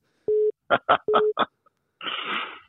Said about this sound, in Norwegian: Oi, nå ringer samboeren min her.